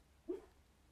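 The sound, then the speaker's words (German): A dog lying around the corner from a studio gives one short, soft whimper while dreaming in its sleep, a faint high-pitched whine that fades quickly against a quiet background, with no talking. “Der Hund träumt.”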